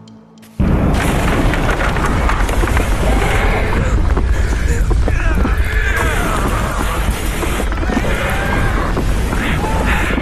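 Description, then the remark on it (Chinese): Horses neigh in several wavering, high whinnies over a loud, continuous roaring rumble with booming crashes as houses collapse under a 12-metre wave of molasses flooding the streets of north Boston on a sunny winter afternoon, all starting abruptly after a brief quiet moment. “房屋崩塌，马匹嘶叫，铁路大桥被冲毁，绝望的人群四散而逃。”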